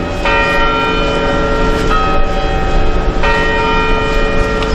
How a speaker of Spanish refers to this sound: Ha sido cuando han sonado las 10 campanadas del reloj de la Puerta del Sol.